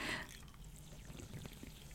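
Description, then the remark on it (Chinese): A short pouring burst, then faint, steady fizzing of sparkling water being drunk, with scattered tiny pops and crackles. Quiet throughout, with no talking. “还有气泡声呢，不知道你们听不听得到？”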